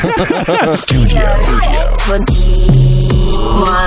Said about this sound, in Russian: У нас помехи, у нас помехи. Ничего не слышно было. Алло.